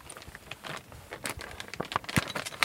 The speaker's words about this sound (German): Ah, da wird jetzt ein Patient oder eine Patientin untersucht, ja? Genau, also am Anfang, das war so eine Plastiktüte mit äh, ähm, Riechstiften, also Geruchsstiften.